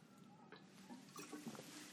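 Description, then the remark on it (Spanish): A person takes a quick sip of water, with soft wet slurping and a faint swallow. The short, quiet sounds come alone, with no talking. “Ah, disculpe, me tomé un poquito de agua.”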